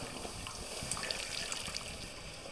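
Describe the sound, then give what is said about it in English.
Water sputters and hisses against a hot silver metal bowl, a steady crackling fizz with scattered sharp pops, fairly quiet, with no voices. “as the water hits the surface it's like a little bit of a, a mini sauna”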